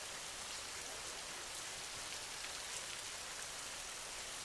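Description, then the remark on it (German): Steady rain falls onto the ground, a dense, even patter of countless drops with faint individual taps now and then, soft and constant throughout with no voices. “Höre genau hin, wie das Geräusch entsteht, wenn der Regen auf den Boden trifft.”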